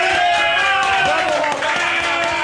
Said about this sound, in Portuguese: Uma salva de palmas